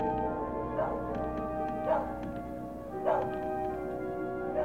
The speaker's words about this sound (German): Ein einsames Haus, Irgendwo bellt ein Hund.